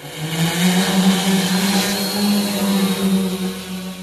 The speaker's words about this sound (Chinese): 我们这会儿听到的是监控象群的无人机升空的声音。 按照象群所在方向，准备往那边起飞，飞过去了。它这速度很快的，用它来追象，能达到追象的目的。